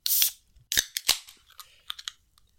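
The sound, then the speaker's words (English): A drink can cracks open with a short hissing burst, followed by two sharp metallic clicks and a few fainter taps, with no talking. “First, let's crack open, my friend.”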